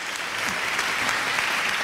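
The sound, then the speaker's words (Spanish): Steady applause from a crowd for the guest Paco Devotion, a dense continuous patter of many hands clapping at an even level throughout, with no voices standing out. “me cortas los aplausos, me cortas, todo.”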